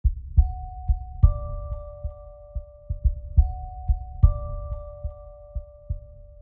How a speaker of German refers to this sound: Unsere Klingel hört sich sonst ganz anders an. Nicht wie ein Herzklopfen.